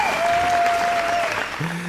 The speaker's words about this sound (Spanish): Primero vamos a dejar a los fans que aplaudan.